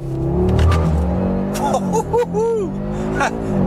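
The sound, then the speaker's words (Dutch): A new Audi RS3 does a launch-control start, its engine roaring loudly and steadily while short whining, squealing tones rise and fall over the rumble as the tires spin. “launch control”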